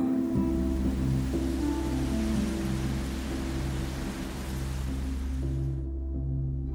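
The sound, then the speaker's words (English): A continuous wash of water waves, steady and fairly loud, layered over a low, sustained droning hum, with no voices present. “I am a wave. I ripple.”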